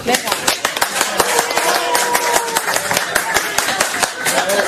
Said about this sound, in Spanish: Un aplauso. ¿Cómo? Eso es para animar, ¿eh?